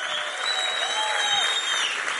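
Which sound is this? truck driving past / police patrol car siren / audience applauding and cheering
audience applauding and cheering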